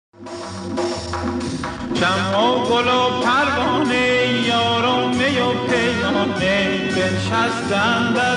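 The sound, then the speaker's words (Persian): A man sings a Persian song in long, ornamented melodic phrases over a full instrumental accompaniment, steady and fairly loud, after a brief instrumental opening. “این بار با یک قطعه موسیقی زیبا و خاطر انگیز یک قطعه خیلی کوتاه شما هم متوجه خواهید شد که واجه های این هفته برگ گل چه ها هستند ببینم میتونید حدس بزنید”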